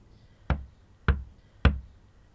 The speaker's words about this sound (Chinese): 响起敲门声。